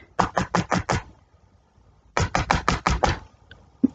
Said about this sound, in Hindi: घर पहुंचा और दरवाजे की सांकल खटखटाई